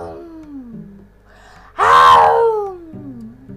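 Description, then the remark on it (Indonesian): A tiger's roar: one loud, drawn-out snarling cry that bursts in suddenly and slides downward in pitch, with quieter moaning growls before and after it. “Ada harimau kuat.”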